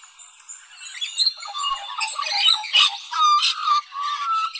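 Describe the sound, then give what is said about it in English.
An Australian magpie sings a rich, warbling carol of fluting and gurgling notes, loud, continuing steadily with no voices present. “Either way, I'm rather fond of the old Maggie's name just the way it is. Sing on, my swooping little friend.”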